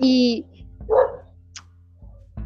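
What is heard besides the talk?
small dog barking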